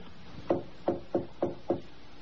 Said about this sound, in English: with a soft tapping on Rachel Howells' door in the dead of night